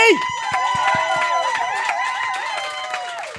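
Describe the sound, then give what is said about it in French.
An audience claps and cheers for guest Mélanie Michaud as she is introduced on a show, with sharp, steady hand claps mixed with raised, wavering voices and whoops, holding at a lively, even level for a few seconds. “Notre invité, Mélanie Michaud, qu'on applaudit!”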